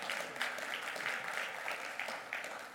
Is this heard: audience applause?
yes